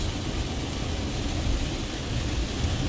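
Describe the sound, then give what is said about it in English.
A steady, dense hiss of heavy rain pouring down, loud, with a constant roar that never lets up and no voices over it. “Wow, it's fucking raining down now.”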